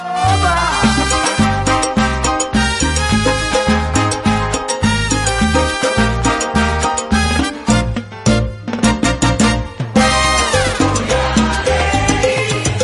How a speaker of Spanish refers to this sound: ¿Ustedes han escuchado alguna emisora de radio que tengan puesto el teléfono en modo silence o modo mudo y suena así? Mira, en modo mudo.